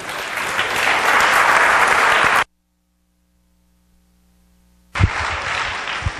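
Loud applause from a church audience welcoming a man who plans to plant a church in Acapulco, a dense wash of clapping that cuts off abruptly into near silence for a couple of seconds, then resumes just as strongly.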